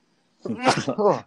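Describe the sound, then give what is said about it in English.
A single loud sneeze with a voiced wind-up that breaks into a sharp, breathy burst, then trails off briefly. “Bless you. Oh, excuse me.”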